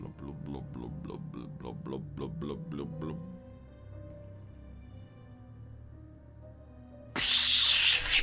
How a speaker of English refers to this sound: This creature has dissolved into the gurgling kind of rolling water at the base of this pool. There's this slime that is accumulated here. And as it does, you're going to hear the sound of water